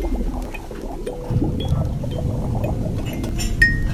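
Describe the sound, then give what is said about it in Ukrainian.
A ceramic coffee cup clinks softly a few times against a saucer while liquid pours and sloshes, with steady low background rumble underneath, as someone takes a sip of coffee in Kyiv. “Я роблю ковтак кави і прикриваю очі знову.”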